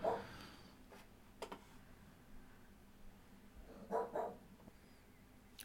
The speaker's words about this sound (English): Sorry, we had to take a barking dog break.